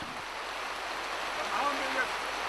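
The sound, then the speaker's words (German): A heavy morning rain shower pours down on an archaeological excavation in a dense, steady hiss, continuous for a few seconds without letting up. “Heute Morgen werden wir von einem ordentlichen Regenschauer begrüßt.”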